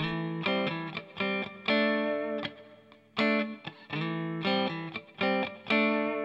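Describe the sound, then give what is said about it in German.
Punchy, slightly distorted chord stabs play in a rhythmic pattern with short pauses, each hit trailing off into a small hall reverb preset that gives a moderately spacious tail. No one speaks. “Ich gucke mal, ob so ein Small Hall, dann vielleicht ist er noch länger.”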